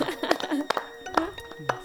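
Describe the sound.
An applause sound effect, heard as a handful of sharp, irregular hand claps that pop out over a murmur of voices and a faint ringing tonal background.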